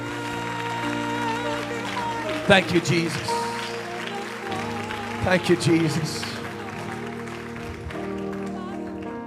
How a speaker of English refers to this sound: If you're going to stand tonight, would you just give the Lord the big hand clap of praise?